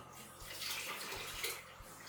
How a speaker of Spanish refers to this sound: Vamos a escurrir la pasta un poquito, ¿eh? La lavamos aquí un poquito, vamos a echar un poquito de agua. Ahí.